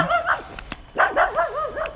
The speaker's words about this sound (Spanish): Un momento, un perro me, ha dado un susto, no me lo esperaba. Un perro me ha ladrado así al lado, no me lo esperaba.